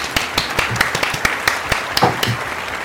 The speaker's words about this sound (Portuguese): Para, pera aí, antes, de palmas para o ouvinte. Palmas para o ouvinte.